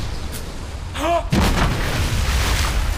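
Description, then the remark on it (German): A ship's cannon fires once: a short rising whistle, then a sudden loud boom that spreads into a rough, rumbling roar lasting to the end, over a steady low background rumble. “Die schießen auf uns!”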